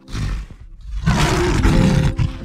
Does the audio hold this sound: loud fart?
no